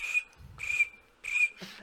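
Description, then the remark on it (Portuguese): Three shrill, whistle-like chirping bursts, fairly loud, as a voice imitates a cricket. There's a faint low rumble between the first two chirps and no speech. “Só, só o grilo na live”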